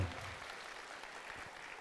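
A crowd claps steadily, a dense wash of many hands applauding at an even level for the whole stretch, with no voices standing out above it.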